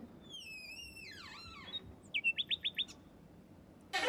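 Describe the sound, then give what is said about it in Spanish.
Birds chirp and whistle in an outdoor park: a sweeping, descending call, then a quick run of five sharp repeated chirps, over a faint steady background hush. “¿Te parece bien si salimos aquí fuera que hay un parque?”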